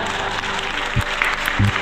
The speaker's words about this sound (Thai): ปรบมือให้ฮะ